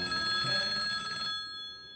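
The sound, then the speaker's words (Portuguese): A telephone rings for an incoming call to a radio show's phone line, with a bright, shrill metallic bell tone, a sustained trill that cuts off about two-thirds through, leaving a fading ring. No voices are heard. “Vamos ver quem que tá na linha. Primeira ligação de hoje em nome de Betfair.”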